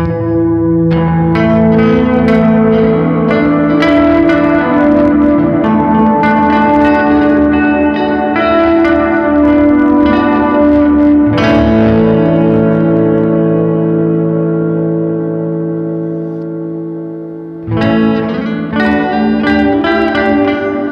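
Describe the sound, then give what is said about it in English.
Loud, sustained guitar chords played through a Cosmonaut ambient reverb pedal wash together, ringing and swelling continuously before a brief dip, then a fresh chord blooms out with long, shimmering echoes. No one speaks. “I I think the one thing will say about the cosmonaut it's definitely like it's definitely designed to be an ambient reverb.”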